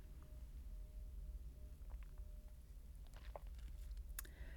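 Someone quietly sips coffee, with a few soft slurps and small mouth and cup clicks over a low steady hum, and no talking.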